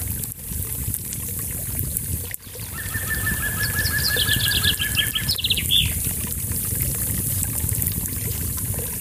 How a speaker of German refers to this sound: Entspanne dich, folge der Atemmeditation und lausche dem Prasseln des Feuers, dem Bächlein und den vielen Vöglein, die hier überwintern.